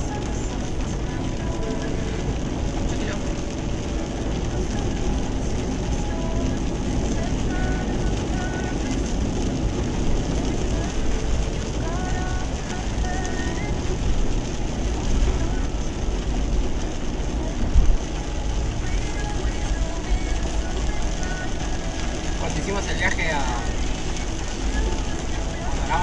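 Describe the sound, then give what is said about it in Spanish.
Steady, continuous road and engine rumble from inside a moving car, dominated by a deep low drone with a broad hiss on top, holding constant throughout with no clear talk. “Estoy manejando.”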